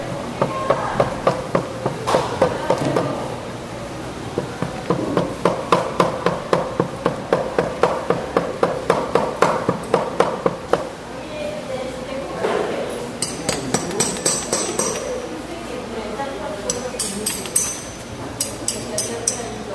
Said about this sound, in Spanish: Con martillo y cincel en mano, otra alumna trabaja con yeso y piedras. Con golpes precisos y fuertes logra darle la forma que la artista desee para su obra.